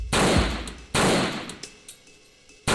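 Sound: three gunshots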